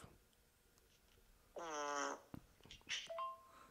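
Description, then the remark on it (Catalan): A single buzzy, reedy recorded fart of about half a second plays back from an app, followed by a few soft clicks and a brief electronic tone, with no one talking. “Són pets eh? reals, tio.”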